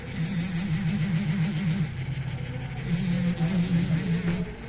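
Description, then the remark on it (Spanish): A rotary sanding tool, a flexible-shaft, drill-like sander, whirs steadily against silver to remove file marks, a continuous motor drone whose pitch wavers slightly up and down, with a gritty hiss of abrasion over the top and no voices. “Una lija es un chicote para poder, este, con tipo esmeril, tipo taladro para poder darle la lija.”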